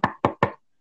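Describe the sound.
Three quick, evenly spaced, fairly loud knocks imitating a knock on a door, followed by silence with no voices.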